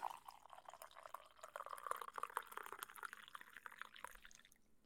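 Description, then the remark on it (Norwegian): Coffee pours in a steady stream for about four seconds, a bright gurgling trickle with a rising pitch as the cup fills, then it stops abruptly. No one speaks. “Det var kaffe.”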